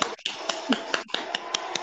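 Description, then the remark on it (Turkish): Applause: a dense crackle of clapping with sharper, evenly spaced claps standing out about every fifth of a second, loud and steady for nearly two seconds with no talking. “Alkış sesiyle.”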